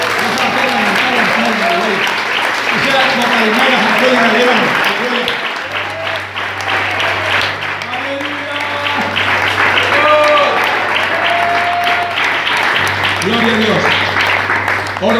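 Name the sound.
audience clapping hands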